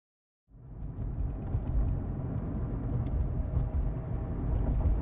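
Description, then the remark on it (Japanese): A car engine starts up after a brief silence and settles into a steady, low rumbling idle that continues without a break, with no voices, as two people sit silently in the car. “無言で車に乗り込んだ相馬と京子は車内においても口をつぐんだままであった”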